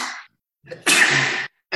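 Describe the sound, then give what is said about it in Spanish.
A single loud sneeze: a short breathy intake, then a forceful explosive burst of air lasting about half a second, with no talking around it. “¡Salud!”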